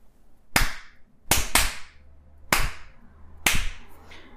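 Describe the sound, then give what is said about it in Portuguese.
Five sharp, loud hand claps with no talking, demonstrating a rhythm exercise: a single clap, a quick close pair, then two more single claps, separated by short pauses. “Então, as crianças entenderam uma palma, duas palmas, uma próxima à outra, três palmas, quatro palmas.”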